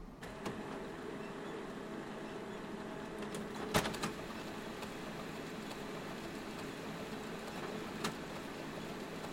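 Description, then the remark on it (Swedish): A printer runs steadily, a continuous mechanical whir and hum broken by a few sharp clicks and clacks, with one louder snap near the middle. No one speaks. “Men innan vi släpper in gästerna tänkte jag ta dig med tillbaka i tiden, nästan 20 år, för nu ska det handla om skrivare.”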